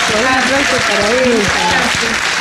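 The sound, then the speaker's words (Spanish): Loud, steady applause from a crowd welcoming a guest to a question session for auctioneers fills the whole stretch, a dense wash of clapping with a voice talking over it partway through. “un aplauso enorme para vos”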